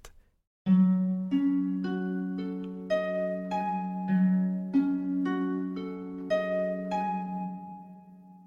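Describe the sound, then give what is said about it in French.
A doorbell at a house on Baker Street chimes on a rainy evening, a melodic tune, a steady run of bright bell-like notes stepping up and down in pitch, each ringing on and overlapping, clear with no voices. “Eh mais, dis-je en regardant mon compagnon, il n'y a pas de doute, c'est la sonnette.”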